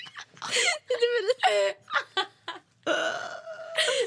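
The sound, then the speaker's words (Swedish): A drawn-out, croaky burp rumbles out, wrapped in bursts of giggling and laughter, then a second throaty belch follows near the end. “det här händer varenda poddinspelning minst två gånger att … pruttar i halsen”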